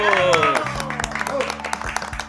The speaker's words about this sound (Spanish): aplausos.